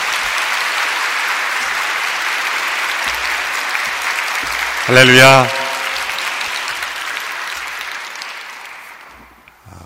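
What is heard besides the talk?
audience applause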